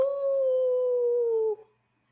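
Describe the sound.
A person imitates a howl at the moon, holding one steady, drawn-out tone for about a second and a half before it cuts off into silence. The voice is fairly loud.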